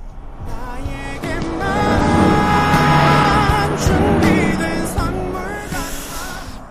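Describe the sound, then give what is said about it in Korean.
A car passes alongside very fast with its window open, its engine noise swelling and fading while a song with a clear melody plays loudly from it, peaking mid-pass and trailing off as it moves away. “옆에 차가 지나갑니다. 차 소리와 함께 음악 소리 들리죠?”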